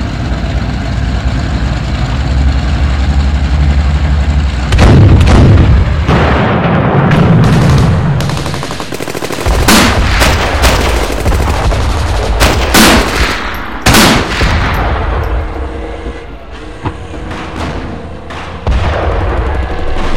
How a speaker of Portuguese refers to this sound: Foi quando deu início a uma violenta troca de disparos entre os tanques soviéticos contra companhias de um batalhão Panzergrenadier, a infantaria motorizada alemã que estava no lado oposto da vala.